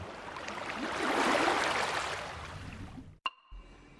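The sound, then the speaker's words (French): A broad rushing wash of sea water swells and crests for about three seconds as a wave breaks and curls over on itself, then cuts off abruptly with a sharp click and faint rumble after. “Le son de la vague n'est audible que lorsqu'il rencontre un obstacle, un rocher, un bateau, ou tout simplement l'eau lorsque la vague s'enroule sur elle-même.”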